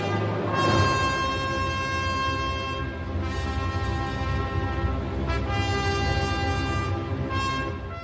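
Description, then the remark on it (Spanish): A bold orchestral theme, Wagner's leitmotif for Notung, the legendary sword, with sustained brass-like tones and rich harmonics, swelling in several loud phrases over about eight seconds, with no voices. “Pasemos a escuchar ahora el motivo o tema de un objeto concreto, Notung, la espada legendaria.”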